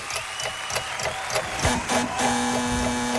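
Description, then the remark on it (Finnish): A quiz show's wrong-answer sound effect: a quick run of mechanical clicking and rattling that gives way to a steady, low electronic buzz, played fairly loud with no talking. “Tämä ääni tarkoittaa sitä, mm. että piste meni nyt sulta sivusuun.”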